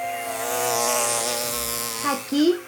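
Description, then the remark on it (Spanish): Bees buzz in a steady droning hum that wavers slightly for about two seconds, then a voice briefly cuts in at the end. “hay plantas con flores y abejas.”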